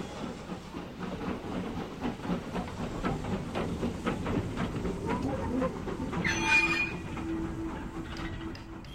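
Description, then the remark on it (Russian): A train rolls along with a steady, rhythmic clatter of wheels over rail joints on curves, loud, then a hiss and a high squeal of braking as it slows and stops at a large station, Berzhula. “Поезд застучал на стыках поворотов и остановился.”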